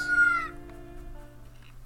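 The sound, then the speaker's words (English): In a video game, a short, bright rooster crow rings out at the start, followed by faint clucking from the baby chicks collected by Link, now grown into full-sized chickens, over a steady humming tone in the background. “And then now that we've collected all the baby chicks, they're graduating into being full sized chickens.”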